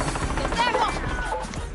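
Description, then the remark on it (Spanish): A helicopter arriving, its loud rotor beating in a steady rapid chop beneath a rising, whining turbine tone that fills the short clip. “Ahí llegó mi helicóptero.”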